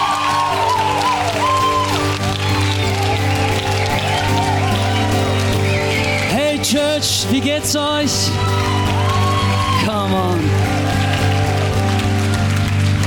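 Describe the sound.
A large church audience applauds and cheers loudly and continuously on a Sunday to welcome their future campus pastor in Düsseldorf, with steady music playing underneath and a man calling out over the crowd a few times.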